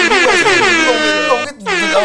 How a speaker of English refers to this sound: I think my favorite one is the air horn on here.